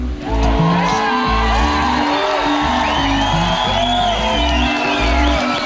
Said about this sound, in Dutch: Toch voelde hij direct na zijn eerste optreden op Lowlands in 2011 wat de impact kan zijn van een tent vol juichende mensen.